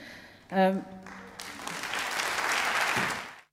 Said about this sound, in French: Donc voilà, on l'entend, ils vous applaudissent.